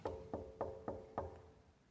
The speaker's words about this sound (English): He comes to each one of us today, knocking.